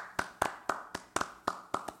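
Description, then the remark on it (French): Brief applause: about nine sharp handclaps at a steady, even pace, fairly quiet, with no one talking. “Est-ce qu'on peut lancer un applaudissement après cette séquence”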